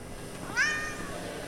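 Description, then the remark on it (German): A single short meow from Kitty Katzen, a cat whose skin is covered with metal, inside a huge warehouse full of hanging cables and futuristic machines; rising then falling in pitch, clear against a quiet background hum with no talking. “Oh, sehen Sie, Dunham. Kitty Katzen ist ebenso aufgeregt wie wir.”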